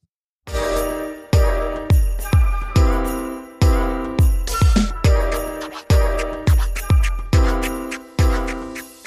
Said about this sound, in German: Es ist jedes Mal wieder geil, wenn äh, so das erste Mal das neue Intro